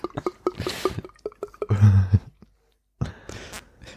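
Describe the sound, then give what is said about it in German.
A voice imitates syrup being poured: a run of wet, clicking, squishy mouth noises building to a thick gurgling glug, a brief pause, then a softer hissing splutter, fairly loud. “so klingt das ja nicht, wenn man Sirup ausgießt.”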